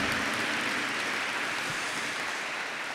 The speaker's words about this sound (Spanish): Vamos a darle un aplauso al Señor por esto. Entusiasmémonos un poco.